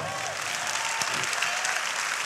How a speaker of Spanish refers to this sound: Dale un aplauso más grande, por favor.